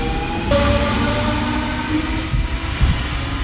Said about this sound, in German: Das muss, vom Geräusch her ist das was aus der Bombardier Reihe 4 424 bis 426. In dem Spektrum hört sich das also an.